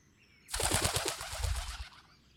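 A pigeon's wings flap in a quick, rhythmic burst of loud whooshing beats lasting about a second and a half, then fading out as the bird takes off.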